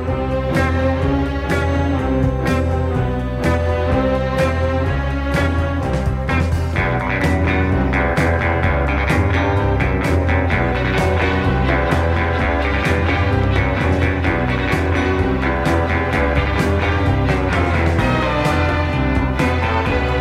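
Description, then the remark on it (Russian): A funky spy-style instrumental with a driving bass and drum groove, wah-wah guitar, and flourishes of strings and horns, playing loud and steady for the whole stretch without any voices. “Услышать басово-ударный грув, а гитару с квакушкой, а украшения струнных и духовых.”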